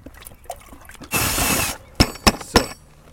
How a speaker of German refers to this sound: So, das war's mit dem Futter anrühren. Eine Wissenschaft für sich, für die man nicht nur viel Zeit braucht, sondern auch eine Menge an Zutaten und, damit es leichter von der Hand geht, die laute Bohrmaschine.